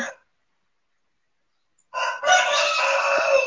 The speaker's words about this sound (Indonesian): Oh, di belakang background suara ayam ya. Mohon maaf teman-teman.